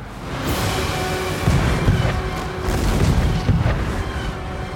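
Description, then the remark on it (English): A warship's cannons fire a broadside at another ship at sea during a rainstorm, several deep blasts rolling one after another over a constant low rumble, loud with no voices. “The Dutchman gave us her broadside, as the infernal cannons blazed, our hull split down the middle with a sound like thunder.”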